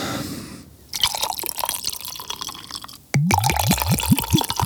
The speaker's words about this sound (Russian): А, и наливать тоник. Да, тониковый.